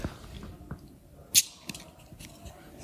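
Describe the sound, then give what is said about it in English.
A Chalcosoma atlas beetle, a little bigger than two hands, moving slowly on a table in its normal state makes quiet, irregular scratches and clicks, with one sharper, louder tick partway through over a low rustling background. No one speaks. “So it's, I believe in, in real life these Chalcosoma atlas beetles um, are also not extremely fast,”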